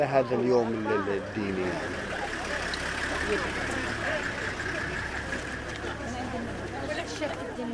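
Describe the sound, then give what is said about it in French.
Bus and car engines idle with a steady low rumble as worshippers return to their buses or cars, while a crowd of people chatters, voices clearest at the start and then blending into the continuous hum. “Les fidèles regagnent leur bus ou leur voiture.”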